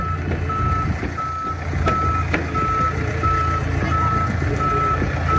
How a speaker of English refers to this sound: Spitfire being towed, the Mark 9. Rampy's taking it over to get it fueled before the next display segment.